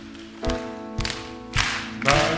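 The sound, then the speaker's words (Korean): A crowd claps together in a steady rhythm, four loud group claps spaced about half a second apart over a sustained musical tone, with no voices, clapping along as a praise hymn to God is offered like a military song. “우리가 해병대처럼 박수는 못 치더라도 적어도 우리가 여러분 군가를 부르는 것처럼 박수 치면서 이 찬양을 하나님께 드리겠습니다.”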